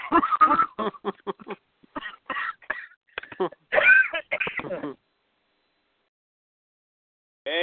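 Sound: coughing fit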